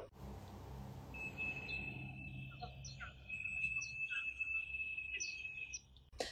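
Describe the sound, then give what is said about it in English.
Pigeon whistles hum as pigeons fly overhead in Beijing, one steady, high, airy tone that holds for several seconds, with scattered bird chirps and a low background rumble of the city. “The sound of pigeons whistling.”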